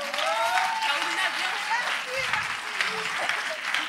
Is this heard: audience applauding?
yes